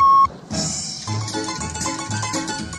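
A short, clear electronic beep, a read-along page-turn signal on a cassette recording, sounds once at the start, a steady tone lasting a fraction of a second, then gives way to busy music.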